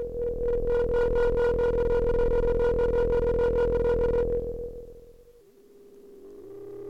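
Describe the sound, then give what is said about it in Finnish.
A steady electronic drone from a sound-art audio file, with a strong buzzing tone and rapid pulsing overtones, plays from a phone through a small, tinny speaker, then fades and bends into a lower, wavering hum. “Jussin lähettämän äänitiedoston eli Serken kuuntelu, viides kuuntelu puhelimen ja pienen kaiuttimen avulla”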